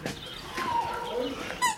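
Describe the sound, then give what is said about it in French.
A dog whimpers in thin, high-pitched squeaky whines, a few short rising cries over under two seconds, with a brief sharper yelp near the end. “Avec le toutou.”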